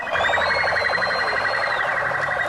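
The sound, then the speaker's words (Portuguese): A police siren blares in a rapid, continuous electronic warble, with a steady higher tone running underneath, loud and unbroken throughout with no voices, as police cars pass along an avenue at the end of a manhunt. “Nesta avenida, à medida em que os carros da polícia iam passando, moradores e comerciantes agradeciam o fim da caçada.”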